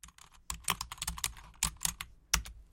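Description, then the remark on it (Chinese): Quick, irregular clacking of keys on a computer keyboard, a rapid burst of light taps with a few sharper, louder strokes, and no voices, as the words “后人” are typed into an online search box. “于是在网上搜索框中敲下了“后人”这两个字。”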